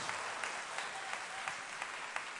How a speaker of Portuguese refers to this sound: eu gostaria demais que vocês recebesse essa minha gratidão, aplaudindo o pastor Paulo, por favor.